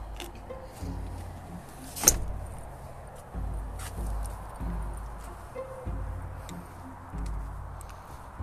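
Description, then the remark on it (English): Steady, rhythmic hoofbeats of a horse clip-clopping as it comes toward the listener, with one sharp louder knock early on; no voices. “It's like a tail horse coming your way.”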